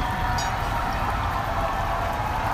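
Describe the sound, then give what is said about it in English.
A steady, dense wash of applause and cheering rises from people up and down a street at 7 p.m. on a Friday night, with shouts, whistles and sports horns; a brief high whistle cuts through near the start. “People up and down the street cheering, applauding, shouting out, Thank you, I love you, blowing whistles, sounding those uh, sports horns that you take to a game.”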